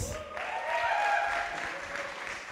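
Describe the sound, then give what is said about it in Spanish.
A church audience claps for its guests steadily for a couple of seconds, a dense, even patter that swells slightly in the middle, with no voices speaking over it. “Vamos a darle un aplauso a nuestros invitados.”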